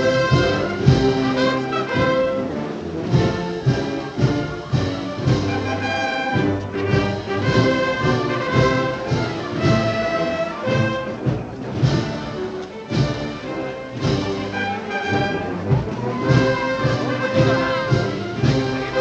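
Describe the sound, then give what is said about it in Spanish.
The Pedro Morales de Lopera procession band plays loudly and continuously, with bright cornets holding sustained melodic notes over a steady, pounding drum beat, and no voices. “y ahora mismo la banda de Pedro Morales de Lopera toca tambor, las cornetas se llevan la boquilla a la boca, el director levanta los brazos y comienzan a tocar.”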